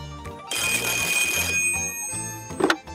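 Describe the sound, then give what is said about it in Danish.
A big red telephone rings loudly for about a second, a bright metallic trill over a bed of background music, followed by a brief clattering sound near the end. “en stor rød telefon med hundredvis af lamper, der blinker i alle regnbuens farver, når vidige hoveder ringer fra hele landet.”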